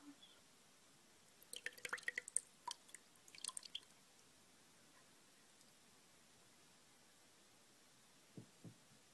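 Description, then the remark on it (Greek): Soft water drips and small splashes patter irregularly for a couple of seconds as hair is rinsed with plain water, then fade, leaving a quiet hum before two low, faint thuds near the end. “θα ξεπλένω τα μαλλιά σου χρησιμοποιώντας σκέτο νερό Μας έχουν πει οι πελάτες μας ότι ο ήχος του νερού είναι πολύ αναμερωτικός”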